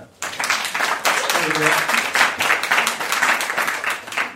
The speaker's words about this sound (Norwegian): Fantastisk å ha dere òg her. Jeg tror vi skal gi dem en klapp.